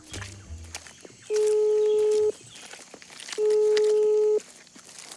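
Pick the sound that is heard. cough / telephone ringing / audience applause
telephone ringing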